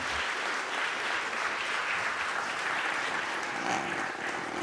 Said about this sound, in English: So please grant them one more round of applause and a welcome on behalf of Harvard.